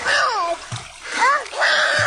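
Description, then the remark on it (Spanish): Water splashes loudly and continuously as a family crosses a river toward the United States, while a child's wailing cries rise and fall over the churning noise in three drawn-out bursts. “donde está una familia tratando de cruzar por el río para los Estados Unidos, donde viene un niño, está llorando el niño”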